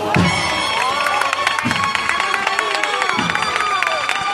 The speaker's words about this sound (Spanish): Anda, que el remate de la marcha ha sido metiendo el izquierdo y ahí está el aplauso del barrio que se va a ir despidiendo poco a poco porque esta parte del recorrido suele ser mucho más rápida en cuanto a velocidad.